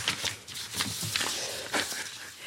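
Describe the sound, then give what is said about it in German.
Crisp rustling and flicking of many paper note sheets being shuffled and sorted by a woman in a radio studio, with several sharp bursts of crinkling over about two and a half seconds and no voices. “Die heutige Gesprächsführerin sortiert ihre viel zu vielen Zettel.”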